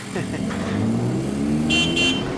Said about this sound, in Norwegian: Der holdt jeg visst på å bli nedkjørt av en tuk-tuk, gitt. Ja, her må man passe på.